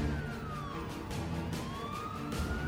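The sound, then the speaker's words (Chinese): Sirens of seven or eight police cars at midnight, surrounding a building entrance, wail with a sliding tone that sweeps down, then climbs again, over a steady rumble of background noise; several overlapping siren pitches can be picked out, with no talking. “深夜十二点，七八辆警车包围了楼门口。”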